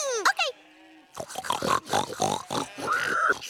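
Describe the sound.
Several voices grunt and oink together like pigs in harmony, along with Hamlet, in a rough, rhythmic chorus, loud, after a brief opening squeal, continuing in short repeated bursts for a few seconds.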